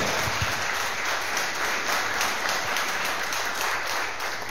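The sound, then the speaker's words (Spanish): A large church audience applauds steadily for God, a dense, sustained wash of many hands clapping together for several seconds, loud with no talking over it. “Entonces, si es así, déle ese fuerte aplauso nuevamente a nuestro Dios.”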